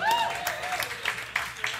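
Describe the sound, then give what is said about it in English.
An audience applauds for the sound crew in a brief, steady burst of scattered clapping, with a few sharper claps standing out and a thin whistle-like tone near the start. “Big round of applause.”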